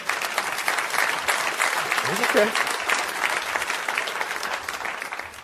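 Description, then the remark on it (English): An audience breaks into sustained, loud applause for the Lord during a sermon, lasting several seconds, dense and steady throughout, with a man's voice briefly speaking over the clapping midway. “You can clap for the Lord. That's fine.”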